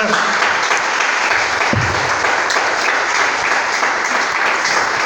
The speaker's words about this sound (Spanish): Dele un aplauso al Señor, por favor, esta mañana.